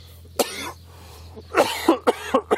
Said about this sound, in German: Jedes Mal, wenn ich hust, bleibt da was hinten drin stecken.